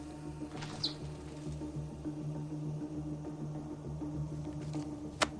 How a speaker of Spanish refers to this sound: Se levanta y descubre un murciélago volando alrededor de la lámpara del salón. Otro dichoso murciélago, señor. Debe de haber un nido en el jardín.